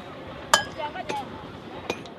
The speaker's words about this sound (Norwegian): går løs på fjellveggen med en hakke. De tynne armene banker løs bit for bit av den porøse steinen.